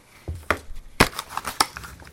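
Crinkling and crunching of packaging material from a newly unboxed mini keyboard being crushed and cleared away, a series of irregular crackly bursts with the loudest rustle near the middle, and no voices.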